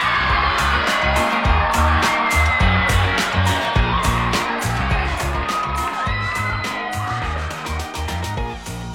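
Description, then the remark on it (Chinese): A crowd claps and cheers continuously to welcome a female guest onto a show broadcast from Changchun, with whoops and high excited shouts over a dense, steady wash of applause that holds loud for the whole stretch and dips slightly at the end. “让我们闲言少叙，用热烈的掌声欢迎她”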